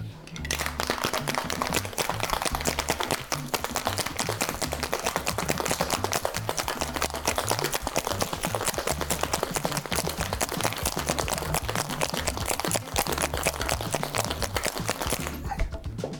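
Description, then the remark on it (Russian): A cocktail shaker full of ice, holding a cocktail with 50 ml of cognac, is shaken hard and fast, a loud, continuous rhythmic rattle and clatter lasting about sixteen seconds over a steady low background. “Что, время шейковать.”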